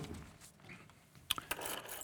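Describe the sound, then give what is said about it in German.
A bunch of keys on a keyring jangles: a couple of sharp metallic clinks, then a short, rustling jingle, fairly quiet, with no talking. “wir kommen so an mit unserem Schlüsselbund.”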